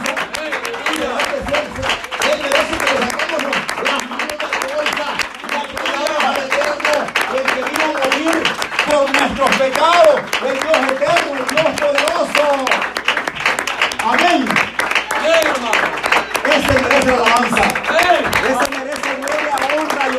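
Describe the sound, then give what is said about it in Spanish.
An audience applauds Jesus steadily, a dense, continuous patter of many hands clapping mixed with voices calling out and murmuring throughout, staying loud for the whole stretch. “¿Será que si Él merece aplauso?”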